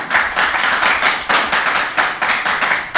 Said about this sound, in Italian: Perfetto ragazzi, vogliamo far vedere che ci siamo? Facciamo un applauso a questi due protagonisti.